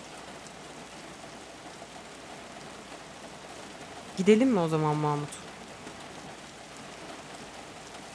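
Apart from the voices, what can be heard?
rain falling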